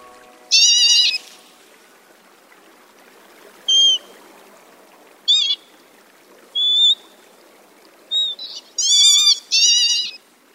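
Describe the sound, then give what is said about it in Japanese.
About 20 northern lapwings in a rice paddy on the Arasaki reclaimed farmland, before dawn while still dark, give plaintive, kitten-like 'myuu' mewing calls in six or seven short bursts at irregular intervals. The calls are clear over a faint background hiss, with no voices. “そんな荒崎干拓の明け方まだ暗い田んぼからこんな声が聞こえてきました「ミュウミ」とまるで子猫のような鳴き声です”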